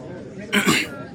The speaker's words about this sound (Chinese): 云峰清了清嗓子，开口说道